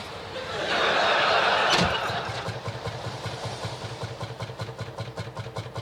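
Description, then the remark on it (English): A car engine cranks with a broad whoosh that swells and abruptly catches, then settles into a rough, uneven idle with a lumpy, sputtering pulse, fairly loud; the car's check engine light is on. “Uh, that doesn't sound good. Remember the old days when I used to point out that your check engine light was on?”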